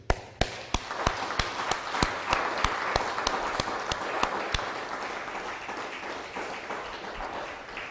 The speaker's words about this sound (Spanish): Ahora nos toca cumplir cabalmente lo que está escrito. Aplausos al Eterno.